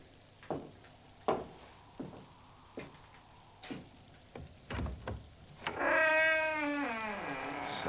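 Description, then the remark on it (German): After a series of scattered sharp taps and clicks, a cat lets out a long, drawn-out meow, fairly loud. No one speaks. “Ein schönes Tier, Sir. Ich habe drei unten in meinem Zimmer, meine ganze Freude. Aha. Mögen Sie Katzen”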